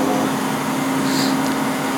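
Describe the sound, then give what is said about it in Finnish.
A washing machine runs with a steady, droning mechanical hum and a low tonal whir, constant in level throughout, with no voices. “Niin Jurassic Parkin dinosaurukset tärisettää enemmän sitä kuin toi pesukone.”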